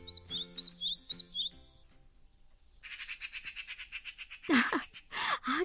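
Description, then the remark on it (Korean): Birds chirp in quick repeated bursts, bright high tweets with a rapid rhythmic twitter, fairly clear, followed by a couple of louder squawky calls near the end. “그래, 새들아, 맞다고? 예뻤다고?”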